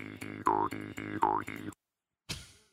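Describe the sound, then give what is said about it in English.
A twangy mouth harp sound effect plays a quick, loud run of repeated boings with bending, wobbling pitch, then stops abruptly before one last short twang after a pause. “we're have to go out and find an actual mouth harp and do that”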